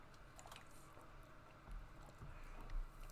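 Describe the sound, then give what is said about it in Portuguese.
Someone drinks water from a giant plastic bottle, with soft liquid sloshing, quiet gulping and a few faint squishes of plastic, fairly quiet, with no talking. “Alguém mandou uma hidratação, eu só tô com uma garrafa, uma pitula gigante aqui.”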